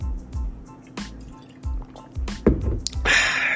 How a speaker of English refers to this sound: Talking for ten minutes straight. Got to get the swig of that water, but gotta get you that hydration, and I'm trying to get up my hydration too.